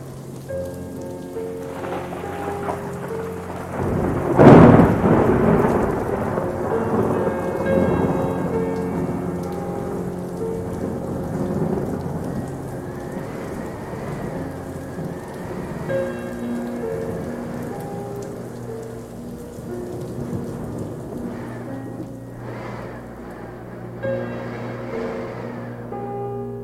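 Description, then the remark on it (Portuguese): Heavy rain pours steadily throughout, broken early by a loud, sharp thunderclap that rolls into a long, low rumble before the downpour carries on alone. “Diluviais foram as chuvas. Enraivecido o estremecer da existência.”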